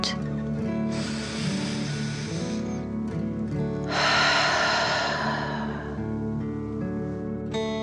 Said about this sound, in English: Again, breathe in through your nose and out through your mouth, pretending you are breathing fire. Deep breath in and out.